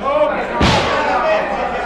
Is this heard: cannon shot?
yes